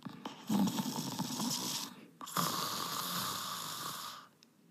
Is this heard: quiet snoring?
yes